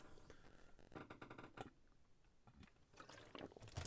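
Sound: pouring or drinking water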